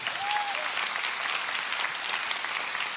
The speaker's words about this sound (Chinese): Come on，拍手把荣耀归给神。